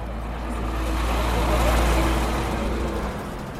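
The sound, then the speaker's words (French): A moving truck's engine runs with a steady, deep rumble during a check of two moving trucks in traffic, its drone swelling slightly in the middle before easing off again. “donc il s'agit d'un contrôle un petit peu plus long de deux camions de déménagement qui sont en circulation.”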